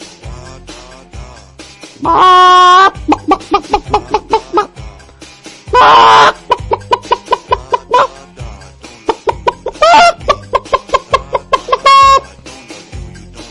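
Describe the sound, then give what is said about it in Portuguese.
A person imitates a calm chicken walking around a backyard with a steady run of short clucks, broken by a few longer drawn-out squawks, like a hen pecking around unhurried. “Primeiro eu vou imitar uma galinha tranquila, uma galinha caminhando pelo quintal.”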